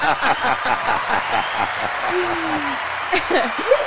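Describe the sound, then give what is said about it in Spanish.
A crowd claps steadily in dense, fast applause for Berkeley in Boston, mixed with scattered chuckles and a brief voice rising through it before the clapping trails off. “Un aplauso a Berkeley en Boston.”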